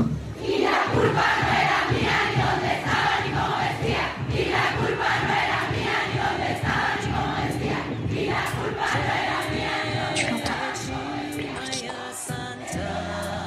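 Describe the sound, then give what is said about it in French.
A large crowd of women roars and shouts together, a dense, loud wall of voices that stays intense from start to finish with rising cries breaking through. “Tu l'entends, Tu l'entends, la gronde des femmes”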